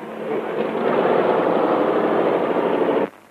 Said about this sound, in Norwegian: Sinning hadde tydeligvis eh, fått muligheten til å låne et fly, så det er noen sånn sekvens hvor et eh, sjøfly kommer da og lander eh, på en innsjø, og ut kommer Asbjørn Krag.